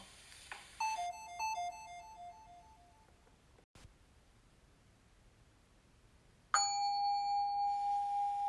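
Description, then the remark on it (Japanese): A small Buddhist altar bell is struck twice: the first ring fades over a couple of seconds, then after a quiet pause a louder strike rings on with a wavering, pulsing shimmer. “本当はこれお坊さんしか鳴らさなくていいらしいよこの前テレビで見た見た今さらって感じそうよ今さらチンなしなんてね”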